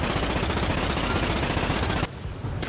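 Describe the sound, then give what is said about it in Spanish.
Loud, rapid machine gun fire in a video game about shooting giant insects rattles continuously for about two seconds, then abruptly drops to a quieter, thinner tail. No one speaks. “Un juego frenético y épico para liarse a tiros con insectos gigantes.”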